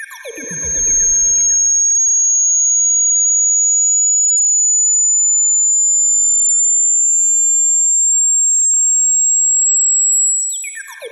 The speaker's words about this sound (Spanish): Frecuencia de 12.000 Hz que puede escuchar una persona menor de 50 años y que es muy probable que una mayor de 50 no pueda escuchar. Aquí les va.